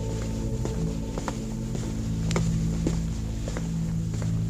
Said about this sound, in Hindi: किसी के चलने की आवाज सी आई